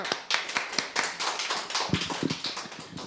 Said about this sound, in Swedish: Stor applåd